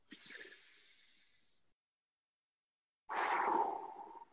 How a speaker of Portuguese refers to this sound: Eu sei que você está respirando, ninguém morreu, mas dá, puxa o ar fundo. Solta esse ar aí. Puxa o ar fundo de novo.